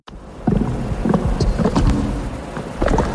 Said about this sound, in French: C'est le son du méthaniseur que Fabien vient d'installer.